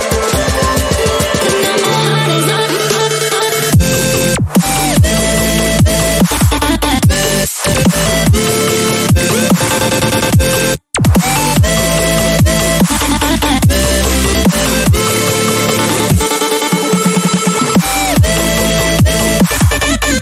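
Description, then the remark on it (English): A melodic dubstep track written by the speaker plays loud and full, with heavy bass, layered synth chords and punchy beats, briefly cutting out a few times for dramatic drops before surging back in. “But then I write like melodic stuff like this.”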